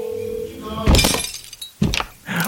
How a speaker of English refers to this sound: My, my Bigfoot gloves, and you know, they're all clumsy, and I accidentally dropped my phone and smashed it with my Bigfoot feet. Oh, whoops, just stomped on it again.